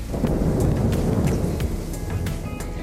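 Steady rain pours down in a storm, with a deep rumbling wind underneath and scattered sharper drops spattering through, loud and continuous from start to finish with no one speaking.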